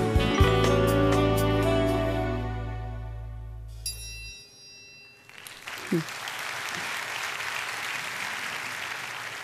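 A sustained chord of music rings out and fades, then an audience breaks into steady, dense applause that continues to the end, with a brief voice rising through the clapping.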